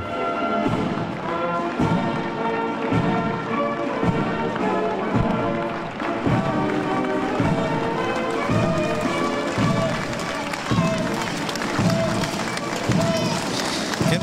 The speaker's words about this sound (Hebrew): התמונות הן אה, בהחלט אה, מרהיבות, אה, חיילים צועדים ברחובות וכלי נגינה. בהחלט יום מרגש בבריטניה, חרף העובדה שמציינים שם את זכרם של הרוגי המלחמות השונות.